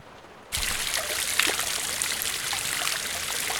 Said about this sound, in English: This is the sound of me offering one asparagus to the church fountain in Struer.